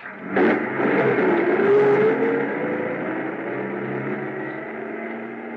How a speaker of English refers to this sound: I stood there in the snow watching the headlights of the truck move away.